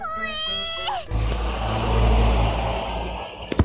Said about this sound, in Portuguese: Vixe, Obrigado, caminhão, por ter passado essa hora do madrugada.